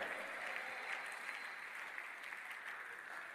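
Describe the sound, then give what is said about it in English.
An audience claps steadily for several seconds, a dense, even patter of many hands at moderate volume, ending with a sudden loud burst right at the close. “Your clapping is in the house.”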